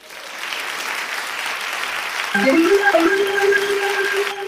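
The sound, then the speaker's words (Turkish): A steady wash of audience applause, dense and sustained, while a rising tonal sound cuts in partway through and holds over the clapping. “bu vesileyle de bir alkışınızı alırım aslında.”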